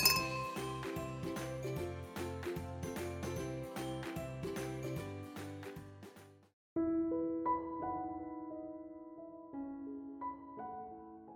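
Glasses clink in a toast: bright glassy clinks repeat in a quick rhythm over a steady low backing, then after a brief pause several clear ringing glass tones chime one after another and slowly fade.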